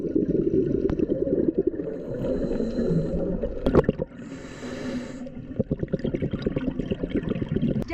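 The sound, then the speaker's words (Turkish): Muffled underwater rumbling and churning water as a diver goes down into the Sea of Marmara off the Erdek shore, Turkey, where the water is full of sea snot, broken by a sharp bubbly burst and a few seconds of airy hiss, then low bubbling and gurgling resumes. No one speaks. “Fox Haber Marmara Denizi'ne daldı Erdek sahilinden”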